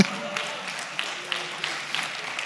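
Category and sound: crowd, audience applause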